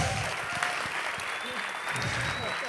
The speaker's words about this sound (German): Mal Applaus für euch, ihr habt echt gut geschwitzt.